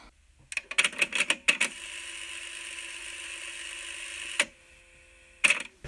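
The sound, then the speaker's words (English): A tape recorder rewinds: several sharp mechanical clicks of buttons, then a steady whirring hum for about three seconds that stops with a click, followed by more clacks, with no talking. “Okay, so I need to rewind this.”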